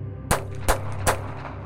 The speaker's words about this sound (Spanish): Tres disparos desde muy cerca se enterraron en la cosa a la que no le había importado perder la cara.